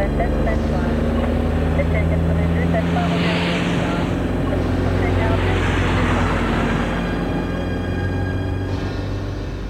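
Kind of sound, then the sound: vehicle, taxi car driving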